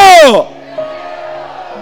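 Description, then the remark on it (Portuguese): An audience shouts in response to a preacher's call to shout 'decreto': a loud, falling cry bursts out at first, then fades into a lower, steady murmur of many voices that carries on. “Decretos Grita aí, diga decreto!”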